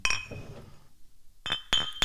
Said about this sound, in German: Ja, dann, äh, wir stoßen mit dir äh, virtuell an. Prost. Prost.